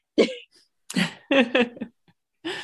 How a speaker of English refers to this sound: sorry hiccups